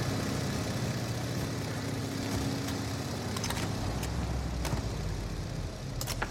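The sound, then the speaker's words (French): A car engine runs steadily throughout, a low rumbling drone at constant loudness, with a few faint clicks and knocks over it and no voices. “Allez, dans la voiture Tommy, droit devant toi cette fois notre meilleure chance de l'atteindre.”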